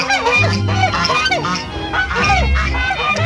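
geese honking

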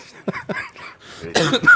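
coughing

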